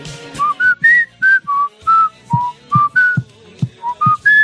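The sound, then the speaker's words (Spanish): A clear whistled tune, the opening melody of a song: a series of short, distinct pitched notes rising and falling in a steady rhythm, about a dozen notes, with no talking. “O sea, empezaba así la canción.”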